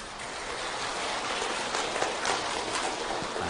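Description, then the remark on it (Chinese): An audience claps steadily and densely at the end of a Buddhist dharma talk, a continuous crackling wash of many hands at an even level for a few seconds, with no voices. “鼓掌的意思是什么呢？”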